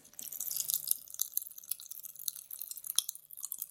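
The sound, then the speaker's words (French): Grape-flavored popping candy crackles and fizzes inside a mouth, a dense stream of tiny sharp pops with wet chewing textures, quiet overall and with no talking. “j'imagine que ceux qui pétillent sont plutôt les grains”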